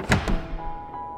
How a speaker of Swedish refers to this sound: Och snart öppnades dörren med ett dån.